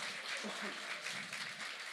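A live audience applauds: a steady, dense wash of many hands clapping at moderate volume, holding evenly for the full two seconds without fading.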